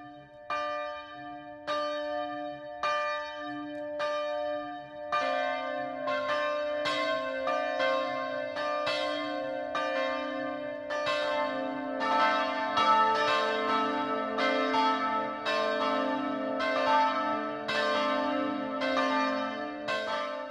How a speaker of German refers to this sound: Es ist 12 Uhr. Das Mittagsläuten kommt heute aus Schönberg in Oberbayern.